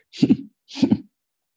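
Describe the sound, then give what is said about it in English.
Two quick, sharp sniffs a moment apart, a person's sniffing vocal tic, each a short double intake of air through the nose, fairly loud, with silence between and no talking. “and the one main noise you can hear is uh, is my sniffing tick.”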